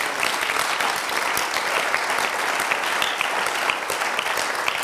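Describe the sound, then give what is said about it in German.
A crowd claps steadily for about five seconds, a dense, even wash of many hands with no voices cutting through and no clear rise or fall. “Natürlich yeah, müsst ihr klatschen.”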